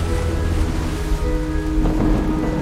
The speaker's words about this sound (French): Rien que de l'eau et du vent. En s'engouffrant dans les voûtes et les anfractuosités du rocher, le vent produit de lugubres harmonies. Dans le chaos, le rocher résonne comme les orgues d'une cathédrale. Clipperton chante dans la tempête.